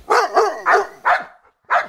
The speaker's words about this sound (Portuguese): Um dia eu observei dos cachorros de raças diferentes latindo um com o outro.